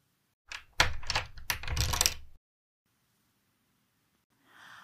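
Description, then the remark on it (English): A brief flurry of metallic clicks and rattles as keys turn in door locks, lasting about two seconds before falling silent, with a soft rustle at the very end. “And the keys turned in the locks.”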